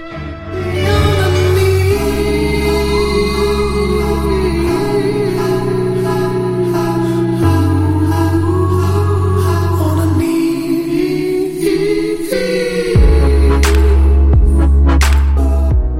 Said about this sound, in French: la prochaine musique, vous l'avez sûrement aussi entendue dans une récente publicité de Proximus